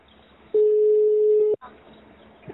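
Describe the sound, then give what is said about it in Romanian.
A phone line's ringing tone in a recorded phone call, made from the speaker's home in June, sounds once: a single loud, steady, mid-pitched beep lasting about a second, followed by quiet, with faint murmuring before and after. “L-a sunat de la mine după ce ne-am întâlnit la Basarab.”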